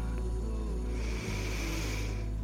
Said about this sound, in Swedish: Ta ett djupt andetag in.